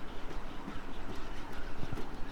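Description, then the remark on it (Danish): A legged robot running up stairs again, its feet landing in quick, fairly steady clattering taps, almost like hoofbeats, over a constant noisy background with no one speaking. “Nu prøver vi at løbe op ad trappen igen.”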